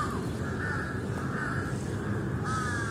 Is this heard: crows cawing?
yes